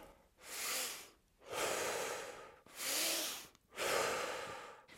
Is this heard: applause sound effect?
no